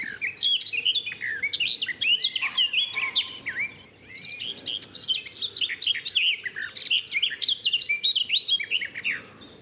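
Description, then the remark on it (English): A garden warbler sings a long, fluid, rapid warbling song, loud, with a brief pause around the middle before resuming; no voices are heard. “to my ears, the garden warbler's louder, a bit more fluid, and uh, the notes sort of end more like a blackbird.”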